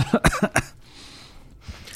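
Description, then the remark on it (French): A quick burst of about four sharp coughs in rapid succession, followed by a stretch of quiet room tone and a faint shuffle near the end. “Pardon pour la toux.”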